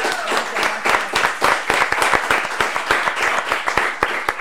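An audience at the first Techo 3 show breaks into steady applause for a guest, many hands clapping in a dense, continuous patter with sharp individual claps standing out, sustained at a fairly loud level with no voices over it.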